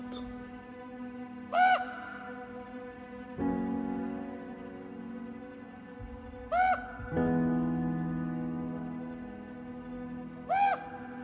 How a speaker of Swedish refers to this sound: Det är alldeles tyst, förutom några korpar som flyger över skogen.